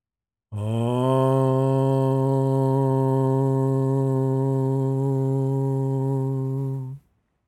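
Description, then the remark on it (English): A single long meditative mantra chant hum from one voice, let out on the out-breath at the end of a meditation sit, held at a steady low pitch with a rich, buzzing tone for about six seconds before cutting off as the breath runs out. “So we'll do 2 minutes of chanting at the end as we did last Wednesday and just to remind you a mantra or a chant is just a hum or a sound that you let out on the out breath like this.”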